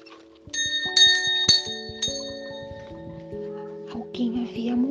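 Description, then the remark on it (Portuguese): Church bells toll to announce that someone has died, ringing out in a series of strikes, each note hanging and overlapping the next in a resonant, rolling peal; a voice starts speaking beneath the ringing near the end. “Quando ao final do terceiro dia, ele estava lá mergulhado em não sabia para que lado ele corria, o que ele fazia mais urgente, ele ouviu as badaladas de um sino.”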